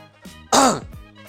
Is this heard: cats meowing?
no